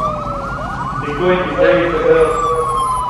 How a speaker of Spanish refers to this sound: Por favor, prioridad 1A, ambulancia en emergencia. Corredor de la avenida Quinta Norte hacia la clínica Dime. Prioridad 1A.